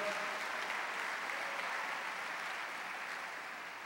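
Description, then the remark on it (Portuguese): An audience at a church service applauds the Lord steadily, many hands clapping together in a dense, even wash of sound that holds its level throughout, with no individual voice standing out. “Quem recebe, aplauda o Senhor e diga aleluia.”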